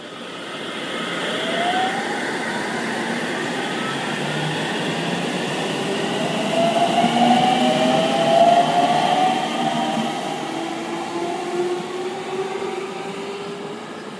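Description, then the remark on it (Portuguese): A train pulls away from a station platform, its broad rumble and rising, whining tones building and sweeping upward as it gathers speed, loud throughout. “Como esse não era o trem que a gente queria embarcar, a gente ficou ali, tem o movimento da galera, mas esse trem seguiu, né?”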